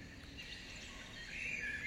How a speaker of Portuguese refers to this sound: Achei tão bonita. Olha, ela tem barulho de pássaros.